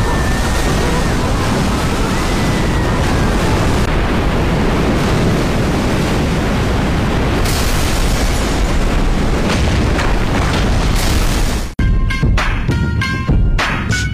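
A tsunami effect from the Korean disaster film Haeundae, a flood of water hitting Haeundae: a loud, continuous roar of crashing water and deep rumbling surges for about twelve seconds, then an abrupt cut to a brief stretch of harsher, choppier sounds.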